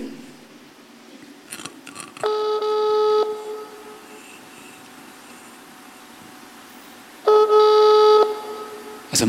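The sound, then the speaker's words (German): A telephone call to a switchboard, such as at a government office, waits to be connected: two ringback tones, each about a second long, spaced several seconds apart, clear and fairly loud over quiet line hiss. “Und wenn man dann irgendwie äh, irgendwo anruft, vor allem bei Behörden, dann kommt man gern in irgendwelchen Vermittlungen raus.”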